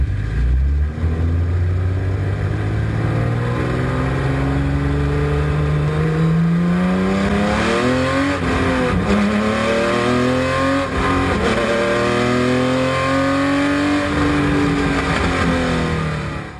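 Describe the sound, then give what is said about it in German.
A BMW M1 Procar racing engine, type M881, revving up to 9,000 rpm and producing 470 hp with 11.2:1 compression, roars loudly as heard by the driver, its pitch climbing again and again as it revs hard through successive gear changes, with no voices over it. “Die Motoren der M1 Procars mit der Kennzahl M881 drehten bis 9000 Umdrehungen und lieferten dann 470 PS bei einer deutlich höheren Verdichtung von 11,2 zu 1 statt 9,1 wie beim Serienmodell.”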